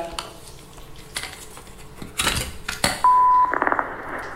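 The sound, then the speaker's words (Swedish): An old answering machine clicks and clunks as its mechanism engages, then gives a single steady electronic beep before tape hiss and rustling begin playback. No voices yet. “Jag har en gammal sån telefonsvarare som jag använder mig av eh, som jag tycker är väldigt bra och pålitlig.”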